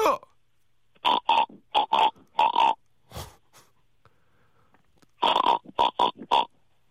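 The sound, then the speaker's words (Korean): A caller on the phone imitates a pig, letting out two quick bursts of nasal, squealing oinks in short rhythmic groups, with a brief low snort in between, loud. “돼지 가능해요?”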